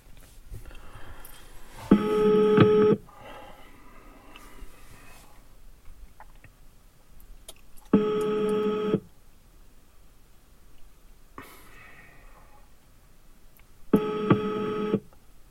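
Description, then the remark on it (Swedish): A phone call rings out through the earpiece: three one-second ringback tones spaced about six seconds apart over faint background hiss, with no voices. “Jag får ta och ringa och kolla var han har tagit vägen någonstans.”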